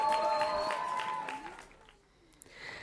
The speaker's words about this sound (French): merci beaucoup aux musiciens parce qu'ils vont nous accompagner toute la soirée. Vous pouvez les applaudir très fort s'il vous plaît quand même.